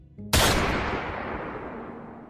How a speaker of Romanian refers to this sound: Pe măsură ce valurile explozii s-au muiat, am auzit o stropire.